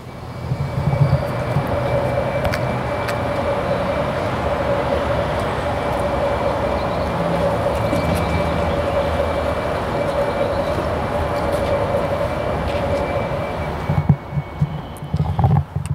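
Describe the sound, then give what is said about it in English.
A steady, broad rumble of a Nissan Leaf driving forward in eco mode, recorded with the microphone held out the window, with a constant low drone and a faint tonal hum; the noise drops away sharply near the end with a few clunks. “And so I'm going to drive forward here. I don't know if you're going to be able to hear it really well, but I'm going to stick the microphone out the window”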